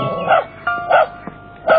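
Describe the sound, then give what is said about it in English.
A dog barks three times in a steady rhythm, each bark short and fairly loud, with brief quiet gaps between them and no one talking. “Caillou was a little scared by the dog, but Gilbert was much more afraid.”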